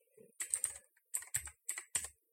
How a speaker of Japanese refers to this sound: カタカタカタカタと、キーボードの音だけが流れる放送になってますね。普段と違う体勢でキーボードを叩くっていうのは非常にこう、あれですね。